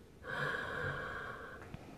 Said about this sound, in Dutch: En dan haal je adem. En dan na die ademhaling zeg je in die stilte: Mijn ademhaling. En dan eh, blaas je uit.